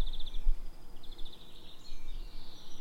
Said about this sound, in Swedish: Egentligen må man bara låta den här stå och spela in fågelsång och kvitter typ en kvart till så kan vi gå härifrån.